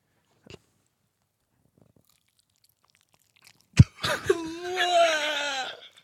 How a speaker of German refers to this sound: So, Moment, ich will einmal abbeißen. Ja.